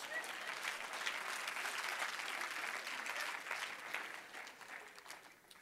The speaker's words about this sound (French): Là, vous pouvez applaudir pour quelque chose.